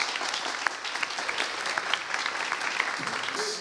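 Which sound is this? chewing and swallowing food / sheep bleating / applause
applause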